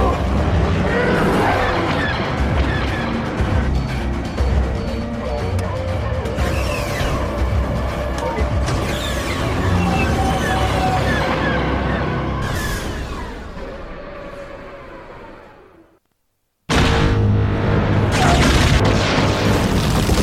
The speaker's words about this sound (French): Allez, juste pour le plaisir, on s'écoute le bruit de la bombe du Slave One.